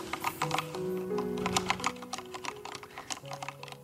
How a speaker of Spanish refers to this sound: Está, escribiendo a máquina en una comisaría una denuncia. Es una denuncia por el robo de un no, teléfono.